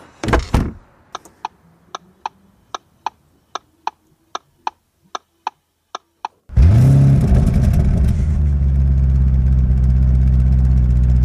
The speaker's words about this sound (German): Okay, das ist ein Achtzylinder. Ja, Ah, oh, jetzt hört er sich ganz anders an. Ja, Doppelkupplung. okay, den hat äh, Doppelkupplung. V8 ja. mit Turbos, mit Turbolader.